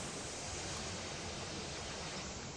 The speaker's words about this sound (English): And I think he's back. I hear the static. Really loud static at that, too.